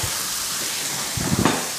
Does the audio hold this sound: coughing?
no